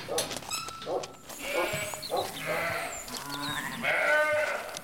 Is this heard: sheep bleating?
yes